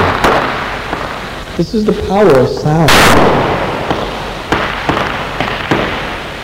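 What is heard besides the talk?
firecrackers exploding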